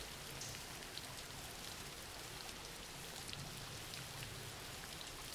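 Steady rain pours down continuously, a dense, even hiss of drops pattering on surfaces with no pauses, consistent in level throughout, with no voices present.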